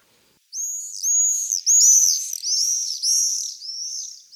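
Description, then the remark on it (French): Shrill, piercing screams of common swifts ring out in a rapid run of overlapping bursts, loud, with no voices present. “J'adore le chant, enfin le, cri qu'il a au printemps.”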